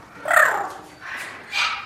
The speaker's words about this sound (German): Figaro, auf den Stuhl. Komm, auf den Stuhl. Der Papagei.